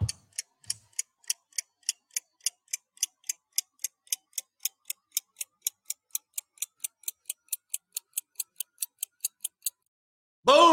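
A time bomb's clock ticks rapidly and evenly, crisp sharp clicks roughly four per second, close and alone for about nine seconds before a voice briefly cuts in at the end.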